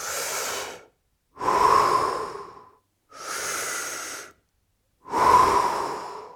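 Four deep, rapid breaths through the mouth, alternating inhale and exhale in a steady rhythm as a fast deep-breathing technique, fairly loud with brief silent gaps between them. No talking.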